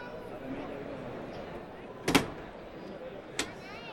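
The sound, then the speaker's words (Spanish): A heavy bullpen gate in a bullring bangs open with a sharp, loud clack to let out the sixth and last bull, followed about a second later by a fainter knock, over a steady murmur of background noise. “Ahí va, Hermes Cortés, abrir la puerta de Torino.”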